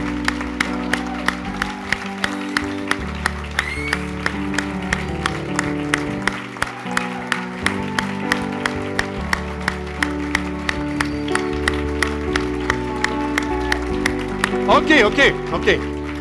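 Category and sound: crowd, audience standing and applauding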